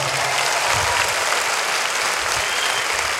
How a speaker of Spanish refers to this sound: Ahora dale un aplauso con tus manos a Dios.